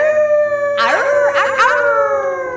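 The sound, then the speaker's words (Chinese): A pack of wolves howls together, several long wavering cries rising and sliding over one another, loud and layered above a steady sustained tone that runs throughout. “我有没有听错？有一百匹狼哎！”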